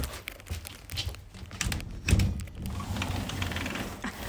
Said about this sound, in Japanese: 続きまして窓を開ける音